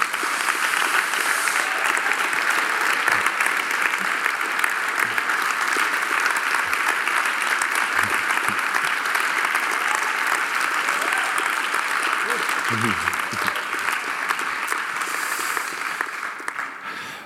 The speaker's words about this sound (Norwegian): Han syns det er litt utfordrende å komme opp hit og snakke norsk, så dere må klappe han fram, sjøl om vi skal snakke om noe litt alvorlig.